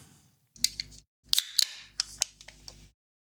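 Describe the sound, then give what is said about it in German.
A sound effect of a can being opened, played by pressing a button: a quick series of sharp metallic clicks and hissy pops in short bursts over a few seconds, with no talking. “Wahrscheinlich machst du dir gar nicht jedes Mal eine neue Dose auf.”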